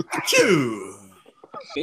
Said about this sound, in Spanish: ¿Es estornudo? Sí.